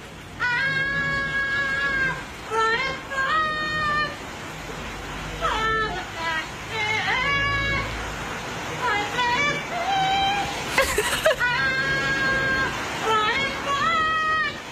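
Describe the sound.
A parrot sings a pop song melody in a reedy, warbling voice, holding long high notes in repeated phrases over a steady hiss of background noise.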